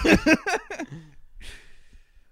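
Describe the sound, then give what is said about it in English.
A drawn-out yawn: a few voiced, groaning bursts that slide in pitch, trailing off into a long, breathy exhale. No one speaks. “Yawn.”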